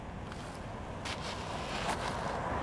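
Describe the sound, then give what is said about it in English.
A truck rolls up an icy home driveway, its low engine rumble steady, with faint crunching from the tires and a few brief rattles, no voices. “What is that truck coming up our driveway?”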